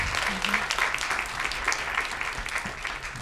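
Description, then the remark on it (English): A crowd applauds steadily for the two producers of the film Navalny, a dense wash of many hands clapping at once that holds at an even level throughout, with faint voices mixed in underneath. “Let's get a clap.”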